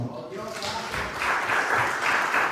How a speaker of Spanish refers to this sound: Puedes decir amén. Yo una ofrenda de palmas al Señor.